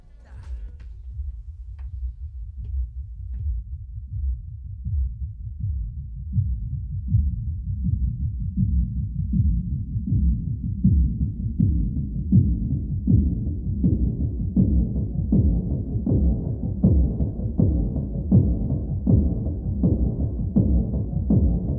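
An electronic music track from a film soundtrack opens on a deep, throbbing bass pulse, rapid steady beats that gradually thicken and brighten as layers build, with no vocals.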